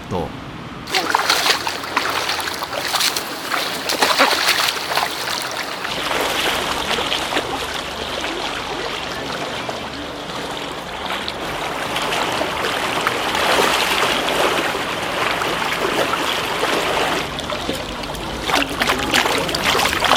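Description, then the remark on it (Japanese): Isawa cormorant fishing (ukai) boat on the Fuefuki River, Yamanashi Prefecture, Japan: steady rushing water with splashes and paddle-like knocks, fairly loud throughout, with indistinct voices mixed into the busy scene. “今朝は山梨県笛吹川伊沢鵜飼のいい音”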